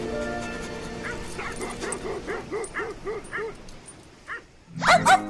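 A dog barks in a quick, evenly spaced series of about eight short yaps, then lets out a louder, sharper burst of barking at the end.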